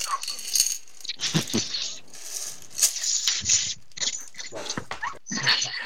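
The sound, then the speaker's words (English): Coins in a bottle of change rattle and clink inside the glass bottle, shaken in irregular bursts for several seconds, fairly loud, with bright metallic jingling and no voices. “This is our bottle of change.”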